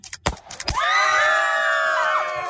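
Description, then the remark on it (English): A couple of sharp bursts from gender reveal smoke cannons firing, quickly followed by a crowd's loud, sustained, high-pitched screaming that carries on to the end. “got a little bit of audio for us by videoing the explosive moment where the cannons went off and we saw the color of the smoke.”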